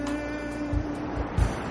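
A steady, hissing wash of sea waves rolling onto the shore, with a soft low thump of surf around the middle and another near the end. A faint steady hum sits underneath.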